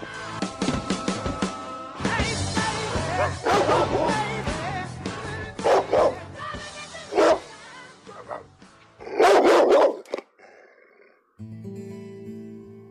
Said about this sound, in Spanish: Entre la marea de voces de FM El Ceibal aquí empieza a ladrar un perro negro.